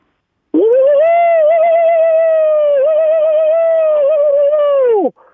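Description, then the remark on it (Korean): A voice imitates a present-day police car siren: one long, loud, steady wail that rises quickly at the start, holds a buzzy high pitch for about four seconds with slight wobbles, then drops away at the end. “다음 경찰차 요즘 네네.”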